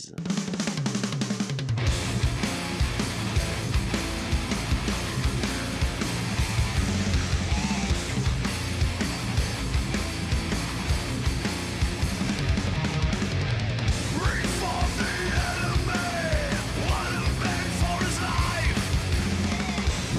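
A heavy metal song kicks in after a brief opening and plays loud and dense throughout, with thick distorted guitars and pounding drums driving a steady beat.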